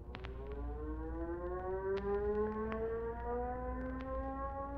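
An airfield crash alarm siren at Rockford Tower, set off with the crash button, wails steadily and loudly, its pitch slowly climbing, with a low engine-like rumble and a few sharp clicks underneath.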